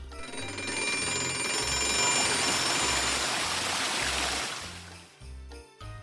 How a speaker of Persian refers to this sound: دیگه با چه صداهایی میتونیم بیدار بشیم ساحت و آب